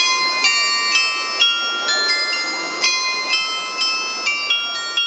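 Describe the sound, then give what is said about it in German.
The carillon on the 4711 fragrance house (Dufthaus) in Cologne, Germany, which plays every day on the full hour between 9 and 19, chimes out a steady melody, its bright bell tones struck roughly every half second and ringing over one another, with faint street murmur beneath. “Das ist das Glockenspiel am Dufthaus von 4711.”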